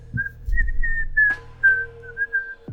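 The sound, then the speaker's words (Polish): A seated man whistles a relaxed, meandering tune, a thin steady tone gliding between a few pitches, clear over a low hum of background noise. “A on siedzi i pogwizduje.”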